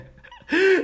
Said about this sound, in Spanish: Si escuchas a mi hijo llorando, eh, es que lo tengo acá abajo.